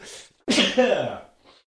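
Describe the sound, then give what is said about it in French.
A single loud sneeze bursts out after a brief breathy intake, then trails off into a soft exhale, with no talking around it. “Décidément, après la toux, j'éternue.”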